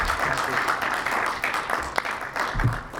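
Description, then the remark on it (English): A steady round of applause from a group, dense crackling claps running the full length at an even, moderately loud level with no voices standing out. “Round of applause for our guest here”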